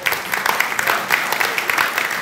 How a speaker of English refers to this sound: I mean, have we ever given those guys a clap, a, a clap offering for all the hard work that they do